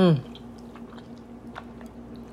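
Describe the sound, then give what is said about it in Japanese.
Soft chewing of curry udon noodles, with faint moist smacks and small clicks at irregular intervals over a low steady hum, after a brief vocal sound at the very start. “咀嚼音とか嫌よね。”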